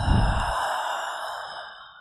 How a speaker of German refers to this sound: Dann atme durch die Nase ein und geräuschvoll durch den Mund wieder aus.